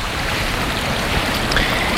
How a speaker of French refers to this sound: Il y a un petit ruisseau, et y les montagnes par contre, il faut faire attention.